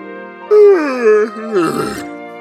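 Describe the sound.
A voice imitating a frightened young hare whimpers, a fairly loud whine that wavers and slides downward, then breaks into a breathier, shaky sob for a couple of seconds.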